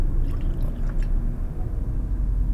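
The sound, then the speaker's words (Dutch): Someone drinks water from a bottle, with muffled low sloshing and swallowing plus a few faint wet clicks early on, and no talking. “Oh, eh, mocht je dorst hebben, ik heb hier ergens een, fles water. Um, als je, als je je hoofd een, klein beetje optilt, dan lukt het wel.”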